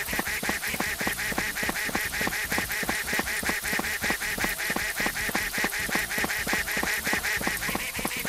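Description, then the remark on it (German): A duck quacks nonstop in quick, evenly spaced, loud bursts, with no voices present. “Ganz so schnell ist die Ente dann doch nicht hinterher.”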